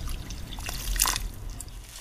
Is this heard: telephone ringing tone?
no